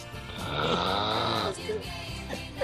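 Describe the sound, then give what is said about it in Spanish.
A loud, raspy snore from a man who has fallen asleep while a song plays, drawn out for about a second and a half, followed by a few shorter rough breaths, with voices murmuring. “Los ronquidos no escuchan la canción”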